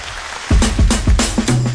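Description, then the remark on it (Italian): A loud round of applause bursts in after a brief quiet moment, dense clapping noise with rhythmic low thumps running through it, and no talking. “a big round of applause.”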